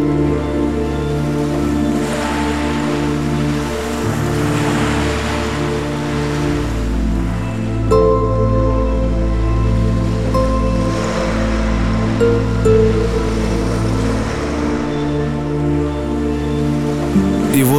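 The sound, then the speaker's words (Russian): Ocean waves wash ashore in slow, rolling surges, blended with a steady, sustained musical drone. The surf rises and falls every few seconds at a moderate, even volume, with no voices. “вот эта вода омывая тебя, начинает трансформироваться в мощный поток.”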